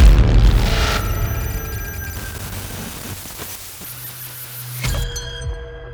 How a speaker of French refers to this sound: Elle zoome pour essayer de lire ce qui est écrit dessus, mais soudain l'écran devient flou et son téléphone se met à grésiller avant de s'éteindre d'un coup.